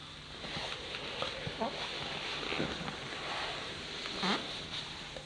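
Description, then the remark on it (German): Soft leather boots rustle and creak, a steady shuffling texture broken by a few short, squeaky creaks at irregular intervals. “Und erregt dich dieses weiche Material, wie es diese speziellen Geräusche macht.”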